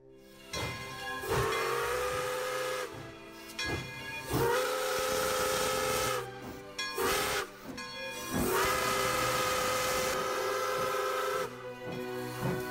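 A steam engine whistle blows in three long, loud blasts, separated by short gaps, with broad hissing steam and mechanical clatter running beneath throughout.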